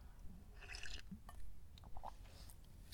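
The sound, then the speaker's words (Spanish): Someone sips coffee from a cup: soft, wet slurping and small liquid swallows spread across a few seconds, quiet, with no talking. “Pausa para trago de café.”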